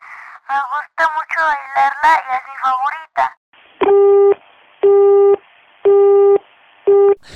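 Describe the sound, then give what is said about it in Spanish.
A person talks briefly, then the call drops and a telephone busy tone takes over: four loud, steady beeps evenly spaced with short silent gaps, heard clearly as if through the phone line. “creo que al parecer nos quedamos sin línea y perdimos a Juanchis”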